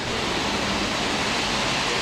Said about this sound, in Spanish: Está lloviendo, aquí viene la lluvia, qué bien, me encanta hermanos.